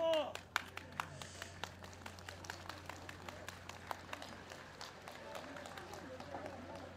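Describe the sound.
A crowd gathered in the yard of the speaker's childhood home applauds with sharp, scattered claps that keep up steadily for several seconds over a low murmur of voices and a faint steady hum.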